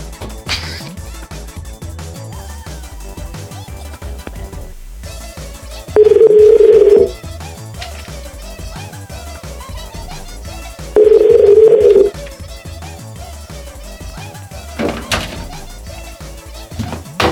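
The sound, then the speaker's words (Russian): Two loud, steady telephone tones, each lasting about a second, sound several seconds apart over a busy, low background bed, like a phone line being dialed and connecting, as a call is placed during a live broadcast. “Я поэтому я хочу позвонить. Сейчас.”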